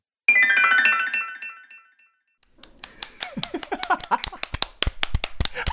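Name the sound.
applause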